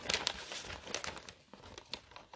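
Wrapping paper crinkles and rustles in a steady run of soft crackles and crumples, with a few sharper bursts, as gifts for an Advent calendar are being wrapped. No one speaks.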